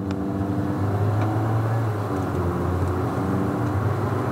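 A CVT hybrid car's engine hums steadily from inside the vehicle, its low drone rising slightly in pitch as it accelerates, with road rumble underneath and no voices.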